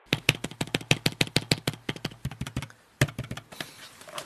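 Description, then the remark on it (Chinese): Fast, steady typing on an older 2019 Apple iPad keyboard: a quick run of crisp, clicky keystrokes for a few seconds, a brief pause, then a couple of stray taps. No voices. “接下来您将听到苹果2019旧款一个不太值钱的 iPad 键盘的声音。”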